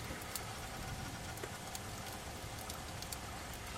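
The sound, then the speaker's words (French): Steady rain hisses continuously, with scattered sharper drops splashing and tapping, as water pours down inside a room through a broken skylight. No voices. “je vous le dis, je, je vois bien, je suis devant, ça pleut à l'intérieur là.”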